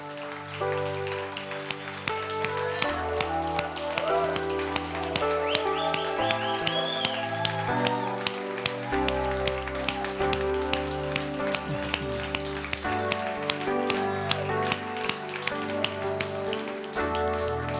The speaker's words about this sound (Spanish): Ponte de pie, dale un fuerte aplauso a tu Dios. Déselo bien fuerte.